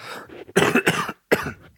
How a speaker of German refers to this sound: Also, Achtung, ich muss mal kurz husten.